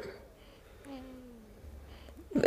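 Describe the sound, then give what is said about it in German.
Soft, high squeaky noises from a newborn baby boy drift in the background, mixed with his faint snoring breaths, quiet, ending with a brief louder sound. “Das, was hier übrigens gerade im Hintergrund so quietscht, ist äh, …. Man hört ihn schnarchen.”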